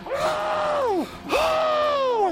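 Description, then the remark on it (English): Two long, strained screams in a row, each about a second, rising then sagging in pitch. A person imitating screaming into a pillow on their bed, fairly loud, with no words. “And then they leave, and you go upstairs and you grab a pillow on your bed and just start screaming into it.”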